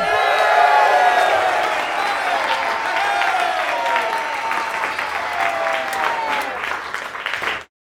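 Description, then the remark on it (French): A crowd bursts into sustained applause with cheering and whoops to congratulate a couple, dense clapping filling the whole stretch at steady loudness before cutting off abruptly near the end. “Non, on peut applaudir là”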